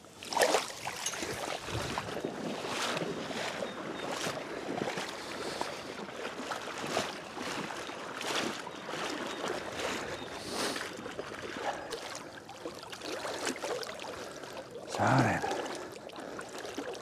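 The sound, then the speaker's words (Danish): Steady, rhythmic sloshing and splashing of water, fairly loud, as someone walks quickly along a beach through shallow water pushing a shrimp net, with a brief stronger splash near the end. “Jeg skal lidt ned langs med stranden, øh, og så skal jeg gå så hurtigt jeg kan, uden at falde med mit rejestrygenet”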